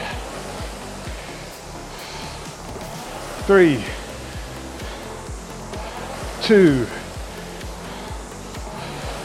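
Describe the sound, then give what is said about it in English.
A rowing machine's flywheel gives a steady, airy whoosh during strokes that fills the whole recording at a constant level, while a voice counts down briefly twice over it. “On a rowing machine, you don't really need to do that and it can cause issues with your technique and your posture if you're not used to it from a water point of view.”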